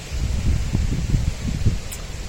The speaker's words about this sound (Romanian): sper să aude că e vântul de toamnă acum, au început și toamna. Să-și pui și ea cuvântul, să, cum se zice, să-și dorească să o băgăm și pe ea în seamă. Un pic de vânt, e și normal la timpul ăsta.